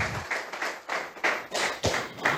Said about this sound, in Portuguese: Aplauda ao Senhor. Pode se assentar.